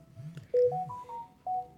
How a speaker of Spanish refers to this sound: Y eso que escucharon es mi celular. Me enviaron un mensaje.